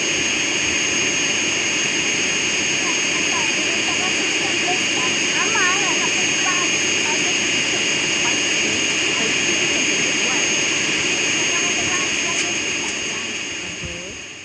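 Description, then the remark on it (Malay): A loud, steady jet engine roar holds for the whole stretch, a dense whine and rumble of an airplane at an airport spooling up before takeoff, with faint voices murmuring beneath it before it eases slightly at the end. “tu dia nak jalan, dia nak terbang lah kan.”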